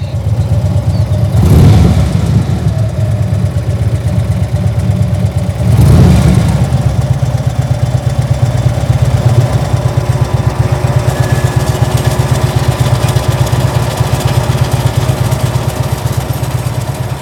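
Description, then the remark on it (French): Motorcycle engines drone steadily and loudly, with two sharp revving surges near the start before settling into a sustained rumble. No one speaks. “les motos, elles sont comme un, élément irrationnel dans le film.”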